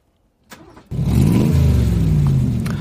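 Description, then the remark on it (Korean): A motorcycle engine sputters to life with a brief crank, then roars loudly and revs steadily up and down, continuous for a couple of seconds: a motorcycle being started before setting off, a sound effect mixed into a song for a radio quiz. “아, 오토바이 소리군요.”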